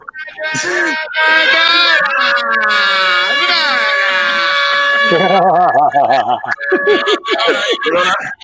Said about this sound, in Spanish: ese es cuando recibo mensaje de texto. Acabado de recibir.